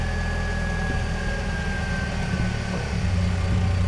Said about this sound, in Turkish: Aracımın kapısını açarken ön cam olduğu gibi beyaza kesmişti. Isınmak için önce motorun ısınmasını bekleyecektik. Ancak ondan sonra hareket edebilirdik.